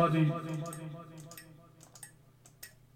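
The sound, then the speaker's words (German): A cup tapped against a pen, giving about four short, sharp clicks at a steady, unhurried pace, fairly quiet, after a brief voiced murmur at the start. “Ich habe mit der Tasse auf den Stift gehauen.”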